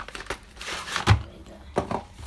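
Crinkling and tearing of packaging as a trading card deck box is opened from the bottom, with a few sharp rustling bursts separated by quieter handling noise.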